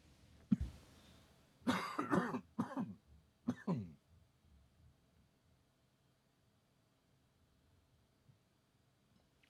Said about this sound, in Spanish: Para los que lo habéis oído, eso son tres toses sueltas.